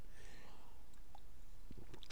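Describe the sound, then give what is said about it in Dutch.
Someone quietly takes a sip of water, with faint mouth and swallowing clicks near the end and no talking. “Even een slokje water, sorry.”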